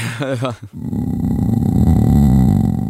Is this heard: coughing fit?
no